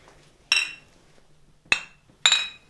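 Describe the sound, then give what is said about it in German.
Three bright glass clinks ring out, the first and last with a shimmering tail, spaced irregularly like glasses tapped together in a toast, with no talking. “Was? Prost ja. erstmal, ne?”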